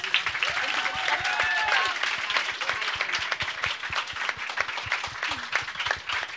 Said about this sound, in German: Vielen Dank, dass ihr da wart. Ein großer Applaus.